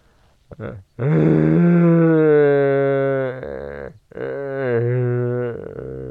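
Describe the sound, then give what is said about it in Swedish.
A human voice imitates a red deer's rutting roar without a calling tube: two long, deep, harmonically rich bellows, the first about two and a half seconds, the second shorter, loud and groaning with no other talk. “så följer ni med ut och spanar på kronhjortar. Där de brunstar.”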